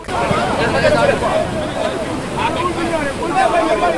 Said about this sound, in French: À l'annonce du chavirement d'une pirogue au large de Wakam, la berge est aussitôt prise d'assaut et les commentaires vont bon train sur le drame mêlé au bruit des vagues.